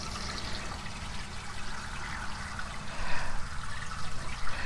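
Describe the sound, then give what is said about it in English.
Water pours out in a steady, splashing stream, fairly loud, growing heavier and more turbulent toward the end, as water is put out for crows living under a porch. No one speaks. “It uh, got tons of rain yesterday, but the crows are under the porch so it's kind of ironic that they have to have their little extra dose of water.”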